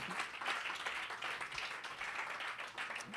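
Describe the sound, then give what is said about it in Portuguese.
A church audience applauds the Lord after a prayer, dense overlapping claps forming a continuous bright wash of sound with no break or voices rising above it. “Todo aquele que crê no poder dessa oração, aplauda o Senhor.”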